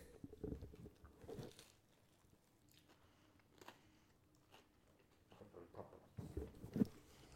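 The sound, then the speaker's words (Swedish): Biting and chewing of a messy sandwich, with several crunchy bites and soft wet mastication sounds recurring irregularly, fairly quiet, with no talking. “Men då är det, smakar väl på den här mackan, den är inte ful ska sägas.”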